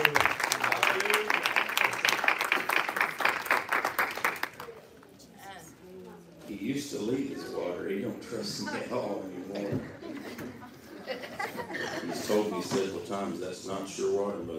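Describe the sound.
A church audience claps together to welcome a visiting preacher in a loud, dense burst of applause for about four seconds, then the clapping stops and a man's voice speaks over a quieter background.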